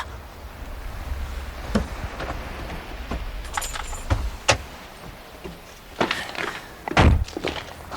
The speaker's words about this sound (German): Oh, da kommt ein Auto.